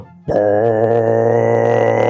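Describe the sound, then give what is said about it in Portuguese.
A voice imitates a ship horn with one loud, steady, low droning blast that starts abruptly and holds without a break for about two seconds, wavering slightly in pitch. “Eu tô falando literalmente de uma buzina de navio, sacou?”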